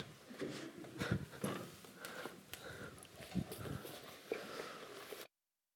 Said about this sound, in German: Ich muss kurz Nase putzen, tut mir leid.